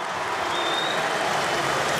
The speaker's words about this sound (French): Alors, je vous explique effectivement, ça a commencé par des sifflets. Et en fait, c'est l'ensemble du parc qui, là, on a marre d'avoir des sifflets sur Messi et qui réagit en, applaudissant l'Argentin.